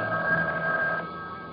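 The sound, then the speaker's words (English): A telephone bell rings in an apartment in a single sustained burst of about a second, then stops abruptly, leaving a faint hiss. The tone is muffled and thin, as if heard at some distance. “The phone seems so far away. I couldn't reach it if I wanted to.”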